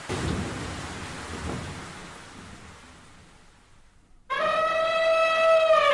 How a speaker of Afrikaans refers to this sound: En binnekort reën dit baie hard. Weerlig flits deur die lug en die donder weer dreun.